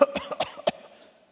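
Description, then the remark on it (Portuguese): A person coughs in a quick series of four or five harsh bursts, with a voiced hum between them that fades out toward the end. No one speaks. “Quem aqui nesses dois anos amanheceu um dia tossindo? Levante a mão, por favor. Tossindo.”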